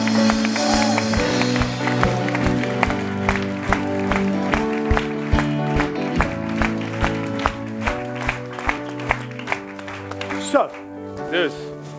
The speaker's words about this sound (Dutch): Amen. Let's give the Lord a great clap. Laten we gewoon een applaus